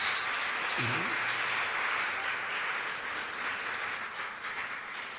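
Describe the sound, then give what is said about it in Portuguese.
A church audience of believers applauding steadily for the Messiah at the preacher's call, a dense wash of many hands clapping that holds strong throughout, with a brief low vocal tone rising through it early on. “Só os que creem dê um aplauso bem forte ao Messias.”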